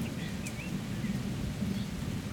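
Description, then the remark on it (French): A steady thunderstorm: deep, continuous rolling thunder rumbles beneath a constant hiss of falling rain, loud and enveloping throughout, with a few faint high chirps flickering in the background. No one speaks. “Ça m'impressionne, l'orage m'impressionne vraiment par moments.”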